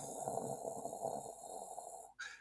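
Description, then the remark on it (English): A voice imitates a jet engine, the way a volcano sounds constantly, with a sustained, breathy roar that holds steady for about two seconds, then cuts off abruptly into a brief higher-pitched hiss. “terrible impression of a jet engine um, folks um, that was amazing well i mean i did it and i i, I even think it was terrible”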